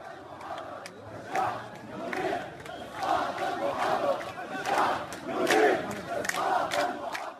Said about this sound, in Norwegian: Det er lenge siden slike rop har nådd omverden. Protester og krav om at guvernøren må gå av i Syria. Det lyder som et ekko fra 2011, men det er tatt opp av aktivister og skal være fra denne helgen og byen Sueida sør i Syria.